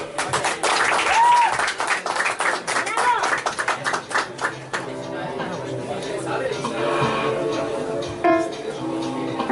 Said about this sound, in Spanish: pues te esperamos mientras se prepara. Fuerte aplauso para ver.